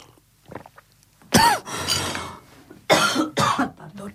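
coughing and throat clearing

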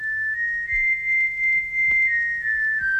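whistling

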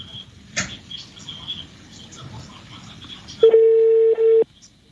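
telephone call dialing

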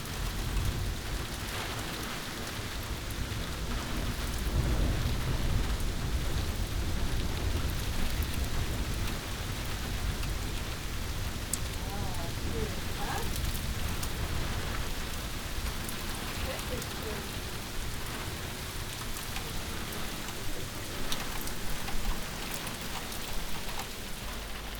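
rain falling

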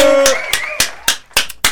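applause

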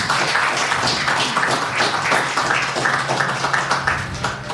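audience applause

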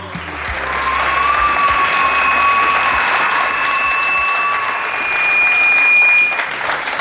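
audience applause and cheering

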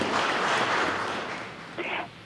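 audience applause

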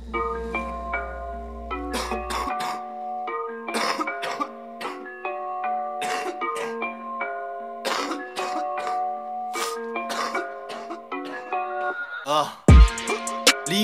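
coughing and throat clearing

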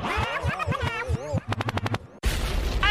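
DJ gunshot sound effect

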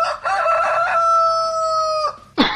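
rooster crowing sound effect

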